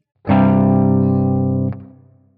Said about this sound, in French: On a un accord qui a comme forme quinte, tonique, quinte. Tout ça c'est bien beau sur le papier, mais qu'est-ce que ça apporte Eh bien ça va permettre d'une certaine manière de tromper notre oreille.